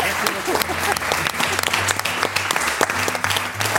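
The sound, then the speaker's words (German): An audience on an NDR Fernsehen broadcast applauds its guests steadily, a dense wash of many hands clapping loud throughout, with a low hum running underneath. “Großen Applaus”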